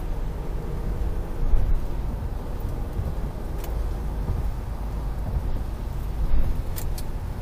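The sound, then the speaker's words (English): Steady road noise from a car driving on a highway in the rain, crossing lanes toward an exit, a constant low rumble and hiss with faint swells, no voices. “It's rainy. I got two more lanes to go before I uh, get off this exit.”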